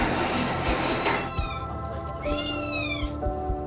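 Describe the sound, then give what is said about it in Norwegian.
Baby tiger cubs scream in shrill, drawn-out, cat-like wails, with two or three long rising-and-falling cries standing out over a steady background hiss and rumble. No one speaks. “They just never stop screaming.”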